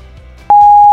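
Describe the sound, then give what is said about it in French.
A single loud, steady electronic beep at one pitch, like an answering machine tone, signalling callers to start their message, starts abruptly halfway through and holds for about half a second before cutting off, following quiet low background hum. “Après le bip, c'est à vous.”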